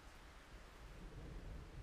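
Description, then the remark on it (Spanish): A low, rolling thunder rumble swells beneath a steady hiss of heavy rain at night, the storm sounding soft, with no voices. “El cielo se aclara la garganta con truenos, recogiendo y dejando caer hilos de relámpagos sobre sus hombros inconmensurables.”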